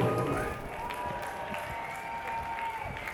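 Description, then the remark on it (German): A demonstration crowd breaks into sustained applause for an activist speaker, a dense wash of clapping with scattered cheers, steady and fairly loud for a few seconds, with a faint tone drifting underneath. “Bitte einen lauten Applaus für ihn.”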